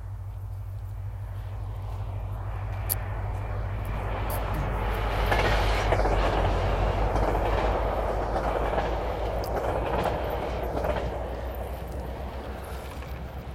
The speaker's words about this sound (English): so that train spews out quite a bit of diesel exhaust while people are trying to walk and exercise and enjoy the park here at Rio de Los Angeles Park.